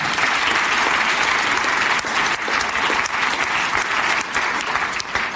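Sustained applause from an audience, a dense, steady patter of many hands clapping at a fairly loud, even level throughout, with no talking over it.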